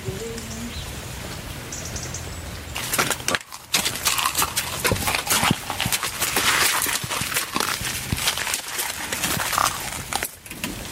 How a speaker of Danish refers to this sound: Hvad hedder sådan en slags hest? Det hedder en islandsk hest.